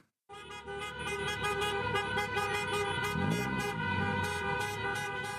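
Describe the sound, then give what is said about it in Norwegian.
A dense wall of car horns blares continuously as angry taxi drivers block traffic in Buenos Aires, Argentina, protesting Uber's arrival; many vehicles honk at once in a loud, sustained din with rhythmic pulsing toots layered on top. “Sinte drosjesjåfører sperrer trafikken i den argentinske hovedstaden.”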